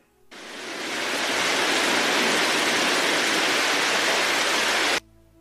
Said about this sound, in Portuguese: No caminho para o carro, começou a trovejar. e logo começou a chover.